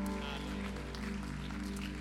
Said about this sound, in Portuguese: Aplauda Jesus, querido. Aplauda Jesus, aplauda Jesus. Você que está em casa, aplauda Jesus. Glorifique, exalte o nome do Senhor.